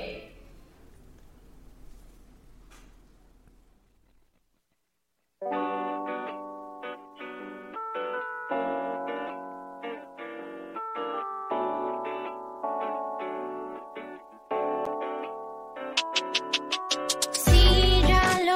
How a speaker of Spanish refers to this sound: vamos mejor primero a poner la canción para que la gente la escuche y ya podamos seguir platicando de la historia, ¿qué te parece?